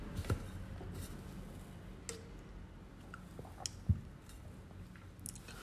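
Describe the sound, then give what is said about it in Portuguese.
Soft sounds of someone drinking water: two low gulping swallows spaced a few seconds apart, with faint wet clicks and squishy mouth noises in between. No one speaks. “Deixa eu beber uma água.”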